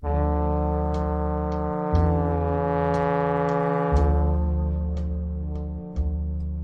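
A jazz recording with trumpet: sustained, brassy chords that shift roughly every two seconds, with a rich low end and a steady, loud level. Purely instrumental, no voices.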